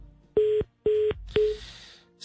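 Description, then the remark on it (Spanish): A phone line cuts off into a disconnect tone: three short, evenly spaced electronic beeps at a steady pitch, clear, trailing into faint line hiss with no voices, as a call with the health secretary drops. “No, eso es que se le va la señal”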